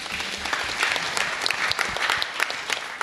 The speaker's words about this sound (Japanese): 大きな拍手をお送りくださいませ